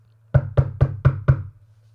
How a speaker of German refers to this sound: Ich leg mich schlafen. Plötzlich klopft's.